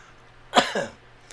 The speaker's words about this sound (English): I tried to recover from my coughing fit in the middle of that, but I started coughing more because that was a good joke.